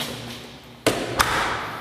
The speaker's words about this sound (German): Jetzt müssen wir nur gucken, dass wir die Tür irgendwie offen lassen. Ja. Die muss ich zumachen.